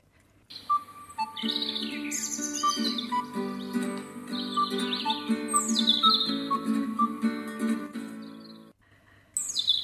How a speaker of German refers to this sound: Der Frühling kehrt zurück und mit ihm die vielen Vögel mit ihrem Gesang und Gezwitscher.